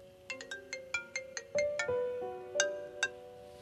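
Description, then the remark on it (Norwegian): A phone ringtone for an incoming call from a lawyer plays a quick melodic tune of bright, plucked tones, rising and falling in a rapid sequence, clear with no voices. “Men så ringer først advokaten og sier at Arnjo, han vil gjerne møte oss.”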